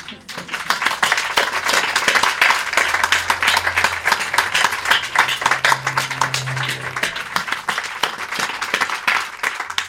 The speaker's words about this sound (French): Et ben, applaudissons-nous, public et intervenante, parce que on s'aime quoi.